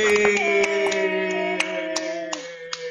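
Scattered applause for the trainer of the KPKL team, a handful of sharp irregular claps over a steady sustained musical tone, moderately loud throughout.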